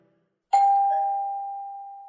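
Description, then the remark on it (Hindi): A doorbell at a home during the COVID-19 lockdown chimes once, clear, its bright tone struck sharply and then ringing on, slowly fading over the next couple of seconds with no voices around it. “एक बार फिर घंटी बजी लगता है जैसे हर रोज लॉकडाउन पे खाना पीना काम करना सोना इसका जो पैटर्न बन रहा था उसमें खाने के बाद घंटी बजे ही गई वो भी एक पैटर्न बन चुका था अब कौन होगा ये सोचते हुए मैंने दरवाजा खोला”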